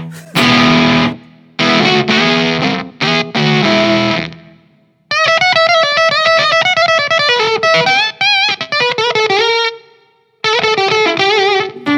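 Loud, heavily distorted electric guitar plays chunky chord bursts and then a singing lead line. Each phrase stops abruptly into dead silence, the hard cutoffs of a noise gate, with no talking.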